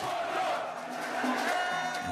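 A dense crowd of wrestling supporters in Dakar cheers and applauds wrestler Modulo, the 'king of the arenas', after his victory, in a steady, loud roar, with raised shouts rising above the continuous wash of clapping throughout.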